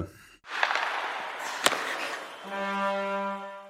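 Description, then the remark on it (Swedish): A short radio show bumper jingle played before the SL segment opens: a rushing, noisy burst punctuated by one sharp hit, then a steady, sustained musical chord rings out to the end. No voices. “ja eh, men vi tar en bumper och sen öppnar vi SL.”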